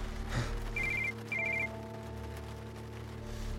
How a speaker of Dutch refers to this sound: Toen bleef zijn telefoon maar afgaan. Dat hoorde hun ook. Dat was ik.